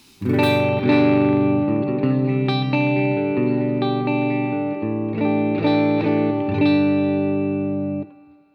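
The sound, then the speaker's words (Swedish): An electric guitar with a Gibson-style pickup switch played on its middle pickup setting, a sustained strummed chord progression with rich harmonics and slight effects, steady and fairly loud, ringing out near the end with no talking. “Mellanläget låter så här då.”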